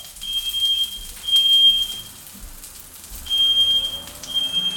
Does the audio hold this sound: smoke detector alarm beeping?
yes